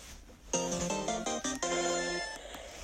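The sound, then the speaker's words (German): A short, bright electronic jingle from a mobile strategy game plays clearly, a quick run of tonal chime-like notes lasting about two seconds, with no talking over it. “Und jetzt gehen wir wieder weiter zu Clash Royale. So. So. Clash Royale. Vielleicht hört ihr es.”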